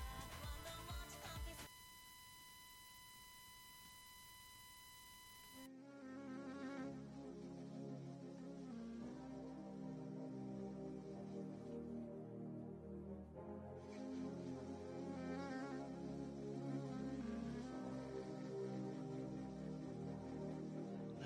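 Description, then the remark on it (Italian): A piece of music plays loudly and continuously, opening with a few seconds of sustained electronic tones before a full, rich arrangement of instruments kicks in and carries on steadily. “Eh, vi faccio ascoltare un, un altro piccolo brano,”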